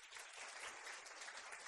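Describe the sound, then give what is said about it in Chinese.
An audience at an Amway meeting claps steadily throughout for the person who introduced them to Amway, a dense crackle of many hands with an even, sustained loudness and no voices standing out. “我们给告诉我们安利机会那个人一个掌声好吗？”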